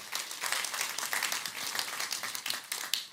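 Steady applause from a church audience in Nürnberg on the fourth Sunday of Advent, a dense wash of many overlapping hand claps at a fairly even level throughout, with no voices standing out.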